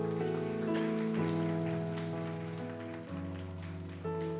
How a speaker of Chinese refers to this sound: 我们再次把掌声归给。